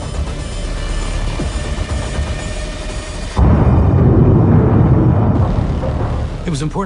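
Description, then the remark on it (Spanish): A sudden, powerful blast about halfway through, as a crashed military helicopter carrying low-detectability technology is destroyed, erupts into a loud, sustained roar and rumble, replacing the steadier background noise heard before it. “Pero antes deben destruir el helicóptero accidentado.”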